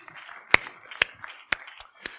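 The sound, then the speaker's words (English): Hands clap together in a steady rhythm, five sharp claps about two per second, a church audience keeping time in unison after a prayer, over a faint background murmur. “Clap your hands.”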